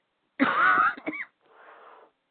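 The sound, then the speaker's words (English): A single rough, raspy cough, followed by a short breathy wheeze of an inhale, with no talking. “excuse me”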